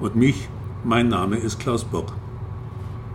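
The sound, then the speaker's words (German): A steady, low ferry engine drone hums continuously in the background while a man speaks clearly in the foreground. “Sie hören Radio Capacona und den Motor der Vito-Affäre im Hintergrund”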